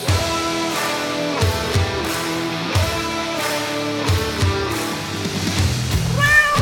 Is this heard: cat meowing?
yes